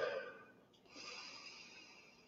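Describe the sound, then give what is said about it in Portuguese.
A long, airy, deep and calm breath drawn in through the nose, filling the lungs, soft, with a brief pause partway before the inhale continues steadily to the end. “Então vamos lá, uma respiração profunda, tranquila,”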